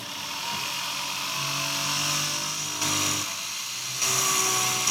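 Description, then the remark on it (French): A jeweler's bur whines steadily while gently milling the prongs of a four-prong ring setting, a bright high-pitched buzz with faint hum underneath, swelling louder in two short bursts as it bites into the metal. “Je vais fraiser tout doucement les, les, griffes.”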